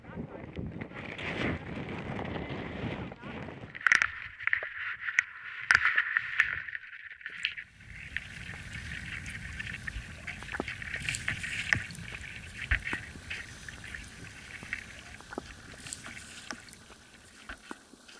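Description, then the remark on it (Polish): A small boat is launched into a drainage ditch, recorded underwater with a hydrophone inside the ditch: muffled sloshing and scraping with scattered hollow knocks, the texture shifting partway through to a steadier, deeper wash. “Wodujemy łódź. Wodujemy też mój hydrofon, który nagra tę scenę z wewnątrz rowu melioracyjnego.”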